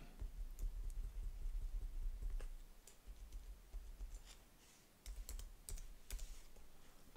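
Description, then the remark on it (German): Quiet keyboard typing while correcting spelling errors in the text of an on-screen card, a scattered series of soft clicks and taps with short pauses between bursts, over a low background hum; no one speaks. “Das Ganze schließt man durch Enter ab.”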